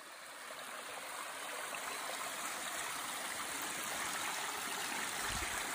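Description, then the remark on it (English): A mountain stream rushes steadily over rocks, a continuous wash of bubbling, splashing water with no voices, holding a fairly even loudness throughout. “Um, we sat there and like watched some of the streams for a little bit.”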